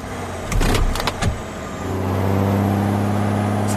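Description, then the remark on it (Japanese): A car engine sound effect used as a gear-shift cue for a profile introduction: a few quick mechanical clunks and bursts like a gear shift, then the engine settles into a steady, loud hum that holds to the end. “では、プロフィール紹介ギア、一足。”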